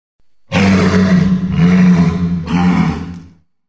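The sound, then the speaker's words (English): A walrus gives a deep, loud bellow repeated three times in close succession, each a rough, throaty roar with a strong low rumble, with no talking. “So, what's that sound? A walrus.”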